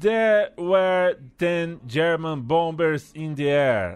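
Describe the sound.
Stoke City football supporters loudly chant a simple sing-song tune in unison to the melody of the British children's song Ten Green Bottles, voices holding steady notes in short phrases with brief gaps between lines, continuous throughout.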